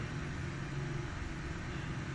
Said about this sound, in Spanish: El viento en el exterior.